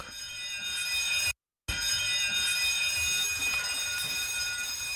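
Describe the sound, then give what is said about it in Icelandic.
The general alarm bell of the ship El Faro rings throughout the ship at 7:27, signalling seven short and one long: loudly and steadily with a harsh, buzzing tone, it cuts out briefly once, then resumes in one long sustained blast. No one speaks. “Sjö 27 hljómaði almenn viðvörunarbjalla um allt skipið. Sjö stutt einn laung.”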